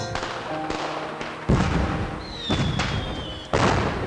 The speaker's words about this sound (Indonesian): Cahaya kembang api menyinari kami di atas kincir angin ini. Gemuruhnya seakan memecahkan dingin malam.